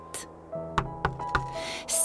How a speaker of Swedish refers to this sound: Snart var de framme vid Harriets stövelstuga som stod mitt på fjället. Sten knackade på dörren som hängde lite snett